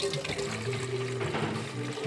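Water pours steadily into a water jug to be set on tables where food will soon be served, a continuous splashing gush with a faint ringing tone as the vessel fills, lasting about two seconds.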